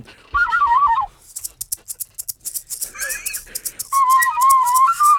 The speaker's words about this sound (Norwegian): Og hva har du å by på i dag? La meg gi deg en fløyteintro.